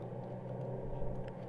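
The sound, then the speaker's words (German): A bus engine shifting up a gear: a steady, low mechanical rumble that continues evenly throughout, with no voices. “Hallo, Bus, schalte hoch. Äh, vielen herzlichen Dank, lieber Bus, fürs Hochschalten.”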